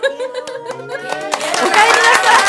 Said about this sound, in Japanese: はいありがとうございますすごい今日はね一言一言拍手が起こるのかな まあ今日今日はちょっとねあの、ね、ギャラリー感がちょっと尋常じゃないですね